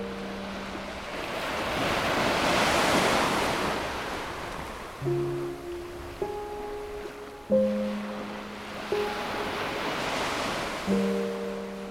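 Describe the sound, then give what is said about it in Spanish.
Ocean waves wash and break in broad, rolling swells, with steady surf noise throughout; partway in, soft sustained musical tones enter and shift pitch over the surf. “Y ahorita que ya puedo ir, quiero conocer el mar.”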